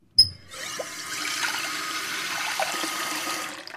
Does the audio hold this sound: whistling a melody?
no